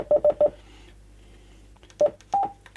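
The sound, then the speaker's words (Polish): Short electronic keypad beeps from a radio in DMR mode as the repeater frequency 438.4875 is typed in by hand: three quick tones in a row, a pause, then two more, the last one slightly longer and higher, over a faint steady hum. “Ja teraz z palca wpiszę częstotliwość przemiennika.”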